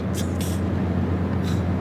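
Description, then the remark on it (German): Steady low rumble and hum of riding inside a Volkswagen Phaeton limousine, an older analogue Phaeton model no longer produced, with a few brief soft hissy swishes drifting over the constant road noise; no one talks. “Also jetzt auch wieder das hier, was ist das eigentlich für ein Modell? Ist es der neue Phaeton?”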